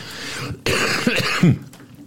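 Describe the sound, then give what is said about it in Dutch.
A person coughs a few times, harsh throaty bursts clustered together, with a bit of throat clearing and no talking. “Sorry, ik ben een beetje hoest.”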